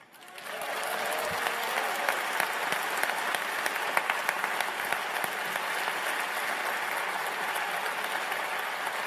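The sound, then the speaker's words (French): Sustained audience applause, a dense steady wash of many hands clapping that swells in quickly and holds at an even, fairly loud level for several seconds with no voices standing out. “Et vous autres, les gens, je sais à vos applaudissements et tout le reste qu'on pense pareil de ça.”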